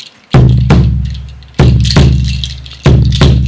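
A deep chimalhuehuetl drum struck in three loud double beats, each pair booming and ringing low like a heartbeat, with no voices over it.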